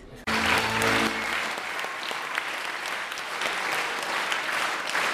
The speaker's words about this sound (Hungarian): vastapsal jutalmazta a kisiratosi közönség a néptánc csoport tagjainak az előadását.